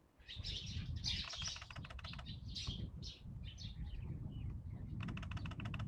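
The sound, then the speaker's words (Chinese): Many small birds chasing each other chirp and tweet at 6 a.m. at the Summer Palace (Yiheyuan) during the National Day holiday, in rapid, overlapping bursts of high-pitched calls, fairly loud and nearly continuous, over a steady low rustling background with no talking. “国庆假期观鸟：凌晨6点颐和园的寂静之声”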